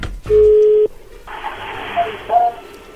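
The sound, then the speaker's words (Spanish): A telephone call connects: one steady, low electronic tone sounds for about half a second, followed by a hissy, band-limited phone line carrying a couple of faint, brief higher beeps. “Bueno, a ver, ahí ya entró la llamada, no hay ruido.”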